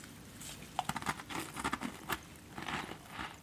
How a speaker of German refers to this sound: Und dazu gibt es wunderbare Cracker und äh, Käsekekse. Ja, genau, ich hört mal zu, hört mal zu. So hört sich ein Cracker an.